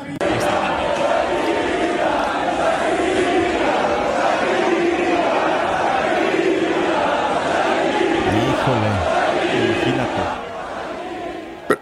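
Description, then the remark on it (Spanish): A large crowd chants a name over and over in loud, rhythmic unison to taunt a man, voices rising and falling in repeated phrases over a constant roar of cheering, fading slightly at the end. “Y fíjate que el público empezó como que medio a meterse con él entre dimis y diretes y dijeron, ¿de qué manera le podemos dar, pues donde más le duele, gritan todos,”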